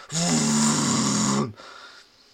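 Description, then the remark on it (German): A person imitates a very poor kitchen extractor hood running on its lowest setting, a steady, droning roar like a jet engine held for over a second, then it cuts off leaving a faint hiss. “es gibt extrem schlechte Dunstabzugshauben.”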